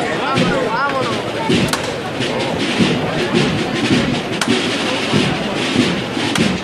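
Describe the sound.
Drum beats from the Cruz Roja band thud irregularly through a dense wash of crowd noise in the procession of the Virgen de los Dolores of the Hermandad de Santa Cruz, with a few sharp, loud hits standing out and voices murmuring throughout.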